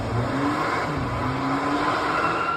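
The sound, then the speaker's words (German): A powerful Audi RS6 car engine revs and accelerates with a steady, loud roar, its pitch rising and shifting over a few seconds, with no voices present. “Das ist der Audi RS6, den die meistens benutzen.”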